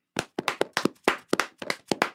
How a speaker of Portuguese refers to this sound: Eu não consigo bater palma do jeito que eu estou aqui no momento, mas é, é isso. Palmas. Tentei fazer uma palma, muito bom.